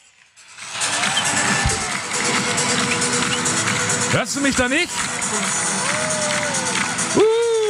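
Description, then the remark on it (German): A loud, steady roar from a crowd of about 20,000 people in an arena during a live TV broadcast fills the whole clip, with a few brief raised shouts cutting through around the middle and near the end, and someone speaking over the din. “wenn es dann im Fernsehen äh, zu sehen ist, wenn das alles on air ist, dann möchte ich, dass du in der Halle ganz laut etwas rufst, damit ich das höre.”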